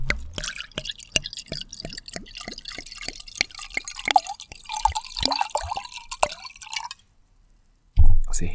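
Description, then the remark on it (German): Riesling wine glugs and splashes into a glass, a steady pour with many small drips and bubbling sounds for about seven seconds, the glass not filled full, then a pause before a short burst of noise. “Das Glas wird jetzt nicht voll gemacht, weil es ist halt ein Riesling Scholle, der als Scholle auch gebaut wird.”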